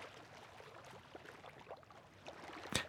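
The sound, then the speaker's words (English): Soft waves lap against a ship's keel in quiet, irregular splashes, with one slightly sharper slap near the end. No voices, just a gentle, steady wash. “The only sounds now were the waves gently lapping at the ship's keel.”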